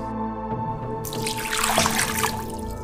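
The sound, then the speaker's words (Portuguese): Water pours and splashes steadily for about two seconds in a baptism, fairly loud, over a low sustained musical drone, with no one speaking. “Que essa água me purifique.”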